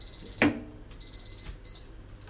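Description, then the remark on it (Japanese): A kitchen timer beeps in rapid high-pitched bursts, repeating in two clusters, with a brief soft thump early on and no one speaking. “はい、今ちょっとね、あの、キッチンタイマーになりましたけどね。”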